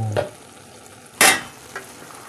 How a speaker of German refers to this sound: Ich weiß nicht, ob ihr es hört. Es köchelt.